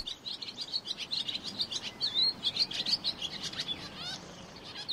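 Several birds chirp and sing in a continuous, busy chorus of quick high tweets and trills, with a soft background hiss and no voices.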